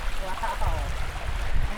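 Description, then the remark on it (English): A small creek trickles and gurgles steadily over rocks, fed by a small cascade coming down a cliff face, a continuous wash of water with a low rumble beneath and a faint voice briefly murmuring in the background. “So coming up on a little trickly creek, crossing over the rocks.”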